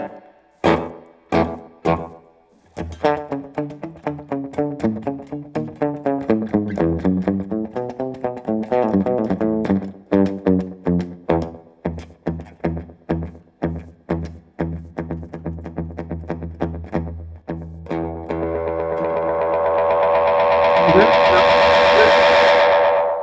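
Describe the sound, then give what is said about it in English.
Electric guitar through a simple analog delay pedal: plucked notes and chords trail off in quick echoing repeats, then the delay swells into a loud, sustained whistling oscillation at the end. “So it's like a, a pretty simple analog delay, which um you know has its analog problems, but it sounds great.”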